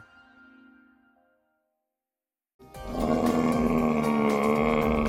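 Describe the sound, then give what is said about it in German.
After a faint fading tone and a brief silence, a brown bear lets out a loud, sustained roar that stays rough and powerful right to the end. “Klingt schon bedrohlich, so ein Braunbär.”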